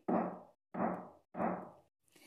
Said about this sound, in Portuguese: Era o lobo batendo na porta e ele disse: Abre agora essa porta, senão eu vou derrubar assim como eu fiz com as outras duas.